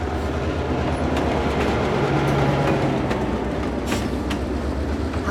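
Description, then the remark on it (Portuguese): A train rolls steadily along the rails, a continuous loud low rumble with occasional sharp clacks and rattles breaking through, with no voices. “O trem está prestes a sair”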